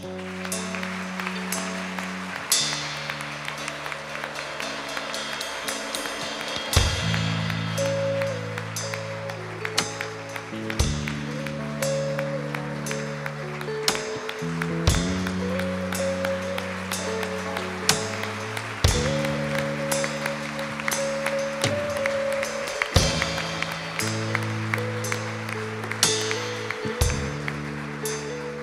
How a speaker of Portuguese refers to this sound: Podemos aplaudir ao Senhor.